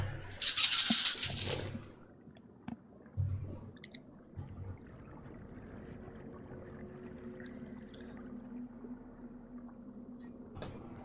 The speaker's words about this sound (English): Yeah, let's just roll a bunch of these. bunch of these dice. Here, I'll just, I'll just take a handful of dice.